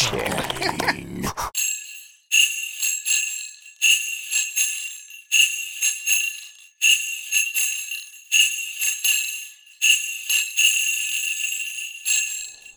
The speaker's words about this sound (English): The saddest sleigh bells you'll ever hear in your life, ladies and gentlemen.